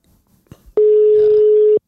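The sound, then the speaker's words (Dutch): A single steady electronic ringback tone, about one second long, sounds loud and clear after a couple of faint clicks, the burst of an outgoing international phone call ringing on the other end. “je moet even internationaal gaan bellen. Wordt een duur telefoontje natuurlijk weer.”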